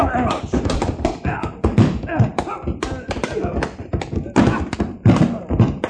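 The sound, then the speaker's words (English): Punches land in a fistfight beside a bar: a rapid, irregular run of dull thuds and smacks, loud and repeated many times, mixed with voiced grunts and scuffling. “The way you're hitting him, he's going to fall against the bar and upset those beautiful bottles.”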